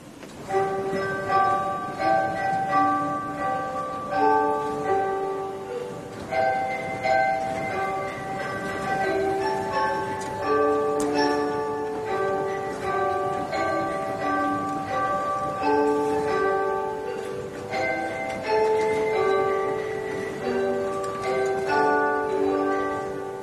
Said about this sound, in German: Also diese Orgel in der Marienkirche hat ein Stabglockenspiel und das hören wir jetzt.